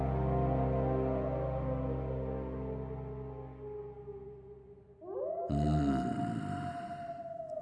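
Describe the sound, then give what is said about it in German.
Wolves howl in long, drawn-out wails that slowly sink and fade, then a fresh howl swells up sharply and holds steady. Fairly loud, with no voices. “Die Wölfe?”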